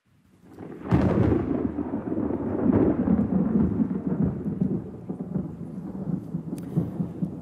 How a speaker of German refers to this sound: Ja, vom allerschönsten Moment kommt aber auch immer der Donner und der Blitz, oder?